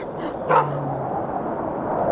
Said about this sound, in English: And then you start to hear barking. The barking and yowling and yipping of hounds, hunting dogs, right? They have a very specific sound and they seem to be getting closer. But they also seem to be getting quieter.